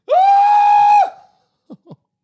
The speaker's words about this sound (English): I can lose my mind. If you want me to just scream, up to you. It's, it's up to you.